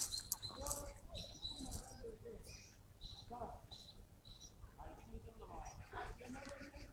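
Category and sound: bird, eurasian blackbird singing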